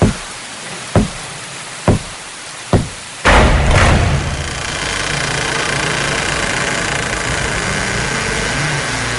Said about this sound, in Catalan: De cop ens trobem davant de la porta del Museu del Parado. Plou molt. Tu tens molt fred. Què fem? Entrem o no entrem? Va, truquem a la porta.